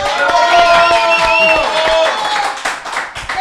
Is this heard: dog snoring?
no